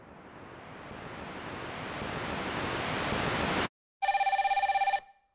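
A broad rushing noise swells steadily for several seconds, cuts to silence, then a loud telephone bell rings in one rapid trilling burst about a second long.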